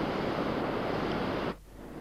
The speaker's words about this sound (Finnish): Olemme aivan kosken partaalla sijaitsevassa Imatran valtionhotellissa. Koski, kosken kohina kuohuu tuolla